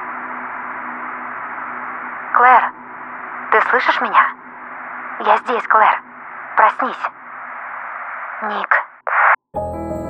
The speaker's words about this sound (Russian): Рация отрывисто прошипела, а затем отключилась. Сигнал был утерян.